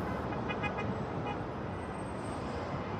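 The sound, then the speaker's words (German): Busy city traffic in New York rumbles steadily, with a few short car horn toots early on rising above the constant roar of engines and road noise. No one speaks. “Da sind ja überall Lichter und Menschen und Autos und riesige Häuser.”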